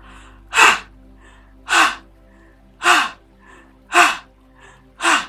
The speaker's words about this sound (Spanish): este ejercicio de respirar a través de la boca en forma de liberación es así. Absorbemos con fuerza y lanzamos el aliento, como si botaras la energía tóxica.